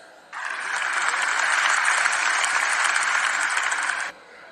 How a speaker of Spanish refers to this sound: Por favor, despidámonos con un fuerte aplauso.